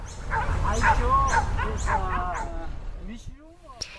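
Dogs bark at night in Mumbai, heard through a window, in a rapid string of yelping barks over a low background rumble, sounding somewhat distant, then trail off into a few thin whines.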